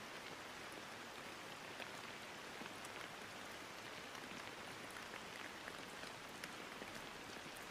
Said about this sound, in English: Sink back into the present moment by noticing the flow of your breath in and out and listen to the rainfall around you.